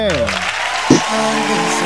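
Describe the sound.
A steady burst of clapping from a small group fills the whole moment, with a voice talking over it and one brief louder thump midway.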